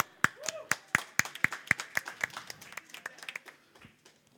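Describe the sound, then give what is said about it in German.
Crisp applause from a small group: steady, evenly spaced claps at first, thickening into looser overlapping clapping before trailing off, with a brief vocal sound near the start. “Jetzt kommt der Leandro und er rappt jetzt für uns. Applaus für ihn.”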